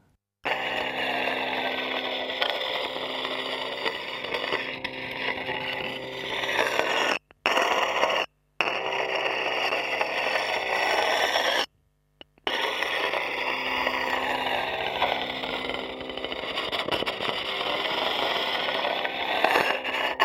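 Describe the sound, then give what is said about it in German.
A laptop cooling pad recorded through a contact microphone: a dense, steady mechanical drone with buzzing, grinding overtones. It cuts out abruptly a few times, like looped segments, and no one speaks. “hören Schleifen mit einem Kontaktmikrofon auf einem Laptop-Kühlgerät.”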